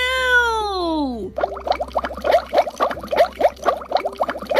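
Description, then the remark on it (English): A sliding, whistle-like tone drops in pitch, then thick, gloopy green goo bubbles: a steady stream of wet pops and blurps, fairly loud, with no talking. “But look at all this bubbling green goo!”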